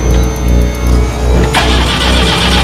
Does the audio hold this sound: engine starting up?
yes